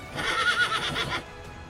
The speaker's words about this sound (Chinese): 就在关羽苦思不得其解的时候，赤兔马忽然嘶嘶叫了几声。